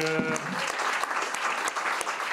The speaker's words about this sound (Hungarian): És a nagy tapsot én azt szeretném kérni, hogy azoknak az aktivistáknak, akik a pártok színeiben dolgoztak és segítették ezt a kampányt, és a sikeres jelöltetnek abszolút kiára a nagy taps.